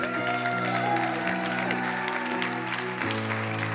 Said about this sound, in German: Lass uns doch mal dem lebendigen Gott einen Applaus geben.